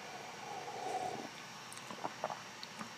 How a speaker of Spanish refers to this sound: bueno, eso amerita que tomemos un sorbito de café.